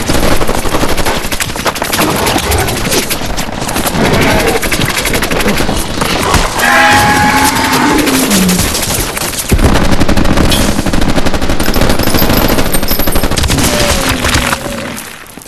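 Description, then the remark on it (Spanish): Loud, sustained gunfire from soldiers shooting off-target rather than at the body, with rapid automatic bursts and scattered shots overlapping in a dense, continuous barrage that runs nearly the whole time before cutting off at the end. “Tan chuecos pueden ser esos esos militares de mierda, ¿qué hacen disparando a otro sitio y no al cuerpo, weón?”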